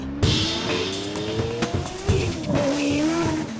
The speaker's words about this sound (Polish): Ten ekscytujący dla wielu dźwięk to 12-cylindrowy silnik spalinowy.